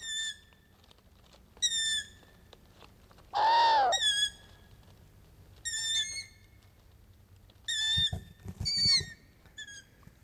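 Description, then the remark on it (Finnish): A long-eared owl gives a high, squeaky call like a creaking hinge, repeated about every two seconds, with one louder, rasping call partway through. No one speaks. “tuulessa nariseva sarana.”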